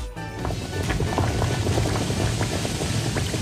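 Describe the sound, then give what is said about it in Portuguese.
Liquid bubbles and gurgles continuously in the opening of a music video, a dense, busy churn of small pops that stays steady and fairly loud throughout, with no voices. “Isto é a versão do videoclipe, tinha cenas a borbulhar.”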